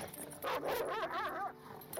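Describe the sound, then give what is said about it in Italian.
A dog, Uruz, bares its teeth and growls, then flattens itself to the ground and barks: a sharp, loud burst followed by wavering, snarling tones over about two seconds, with no one talking. “Il cane puntò il muso verso Pangiù e snudò i denti, ringhiando. Si appiattì al suolo e abbaiò.”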